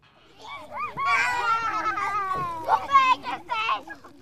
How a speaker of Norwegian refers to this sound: Utenfor en av studentsamskipnadens barnehager kan barna leke trygt.